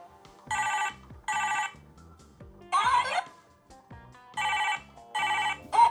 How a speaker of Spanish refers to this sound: Y amigos, bueno, ya después de escuchar eh, mi celular con ese ringtone, güey, que realmente no era un celular verdadero, sino de juguete, ¿no?